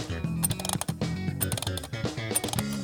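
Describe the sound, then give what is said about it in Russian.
A mechanical alarm clock being wound: quick, rapid ratcheting clicks in uneven bursts with a rough metallic texture, fairly loud and continuous for a few seconds, with no voices. “Ты забыл, делается? как работать с аналоговым будильником?”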